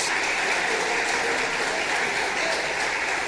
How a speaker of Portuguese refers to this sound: Ele nos ama. Se é para aplaudir o Senhor, aplaude com vontade e dá glória a Deus.